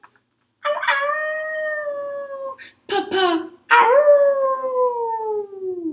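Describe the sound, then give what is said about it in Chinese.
A voice imitates a big wolfdog howling: two long, loud, wavering howls that slide downward in pitch, separated by a short, rough bark-like burst. “喂，大狼犬，你不要欺负我们家的人啊！”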